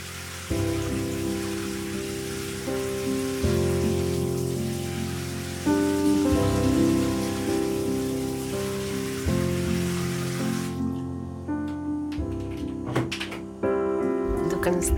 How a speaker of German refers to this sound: Sie darf so lange duschen, wie sie möchte.